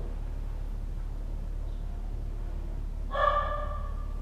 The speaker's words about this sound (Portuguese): Meu cachorro tá latindo, cala a boca, Chico. É... E aí. Eu vou ter que brigar com ele rapidinho. Shiro!